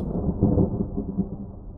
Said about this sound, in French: Une nuit, il y eut un orage terrible et toute la forêt était secouée par le vent. Les éclairs illuminaient la montagne et la pluie inonda toutes les prairies.